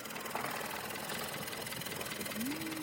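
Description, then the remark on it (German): A boat engine runs steadily as the boat travels along the Thonburi canal, a continuous loud mechanical drone with a rough, buzzing texture and no pauses, with no voices heard. “Wir fahren weiter mit dem Boot den Tonburi entlang und kommen am Klongbang Luang Artist House vorbei.”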